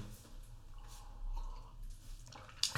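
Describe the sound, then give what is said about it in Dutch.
Someone takes a quiet sip of a drink: faint wet slurping and swallowing sounds, low and soft, ending with a small sharp click. No one speaks. “Eerst even een slokje.”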